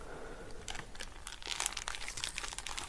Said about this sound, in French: Je veux que tu déchires ce papier cadeau avec tes dents.